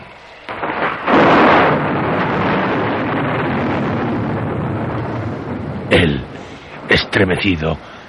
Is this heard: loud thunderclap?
yes